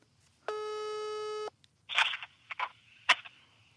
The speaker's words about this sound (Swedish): Ringer det nu? Ja.